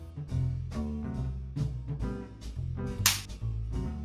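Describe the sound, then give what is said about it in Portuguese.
A single sharp, loud slap cracks out about three seconds in, standing out over a steady backing of rhythmic music that plays throughout. “Um tapa na gostosa.”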